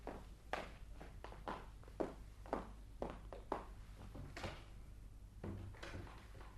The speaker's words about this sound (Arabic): طيب على كل حال هاني هوني قاعده باش ندخل البيت الاخرى ونسكر على روحي الباب من داخل